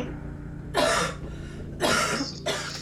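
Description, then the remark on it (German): A woman coughs three times in quick, harsh bursts, the last one cut short, fairly loud against a quiet background with no talking. “Wow, sie hat Farbe ins Bild gehustet.”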